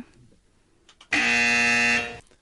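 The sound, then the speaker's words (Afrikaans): A quiz buzzer sounds once as a contestant presses the button during a spelling quiz, a loud, steady electronic tone with a rich harmonic drone lasting nearly a second before cutting off, preceded by faint low rumbling. “jy is heeltyd hier met jou vinger op die knoppie.”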